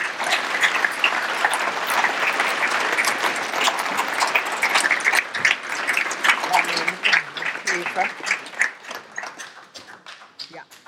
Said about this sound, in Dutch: Maar ik wil graag die twee vrouwen naar voren roepen, dames en heren. En u uitnodigen om ze met een warm applaus te onthalen.